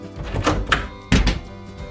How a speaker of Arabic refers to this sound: خرجت ماما من غرفتي وأغلقت الباب.